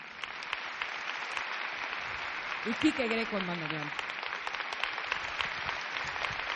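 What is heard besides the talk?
audience applause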